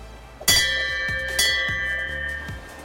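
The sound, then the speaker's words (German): A large bell in the courtyard of a winery rings twice in close succession, each strike bright and metallic with long sustained overtones that ring on and fade slowly, with no talking. “Hier im Hof gerade ist außer mir und ein paar Vögeln noch niemand, aber es gibt eine große Klingel.”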